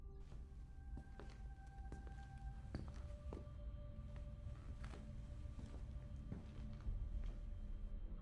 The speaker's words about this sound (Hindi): उनको कहीं से एक चलने की आवाज़ आई